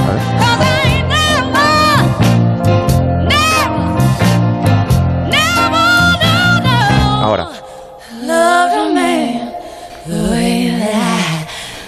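A loud soul song with a full band and soaring vocals; midway the band drops out, leaving the singers alone with breathy, heavily breathing phrases and sparse backing.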